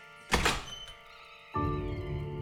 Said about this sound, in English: My younger sisters froze in fear, but I followed Miss Eastwich as she bounded across the dressing room and threw open Maisie's bedroom door.